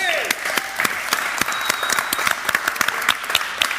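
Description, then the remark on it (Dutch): An audience applauds alderman Vincent Karmans, many hands clapping in a dense, continuous patter with sharper individual claps standing out, sustained at a fairly loud level for the whole stretch. “En mag ik er toch een, graag een heel hartelijk applaus voor wethouder Vincent Karmans.”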